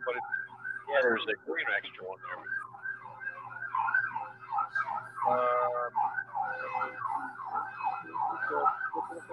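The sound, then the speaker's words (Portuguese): An emergency siren wails in a fast, repeating warble through the whole stretch, fairly loud and steady, while a voice speaks briefly over it against a low constant hum. “E, é, essa polícia não é aqui, né? Ou a ambulância não é no avião.”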